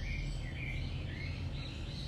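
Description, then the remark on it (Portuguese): Faint songbirds chirp and warble in the backyard of a consulting office, heard through its open door, a continuous thin twittering over a steady low background hum, with no one talking. “Vocês vão ouvir os passarinhos cantar aqui que porta aqui do consultório está aberta.”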